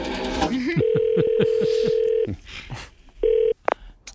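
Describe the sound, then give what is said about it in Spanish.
A telephone number being dialed: a steady tone runs under a quick series of short keypad beeps, followed by a brief burst of another tone, clear. “Así que voy a hacer yo el trabajo de J y voy a llamar por teléfono.”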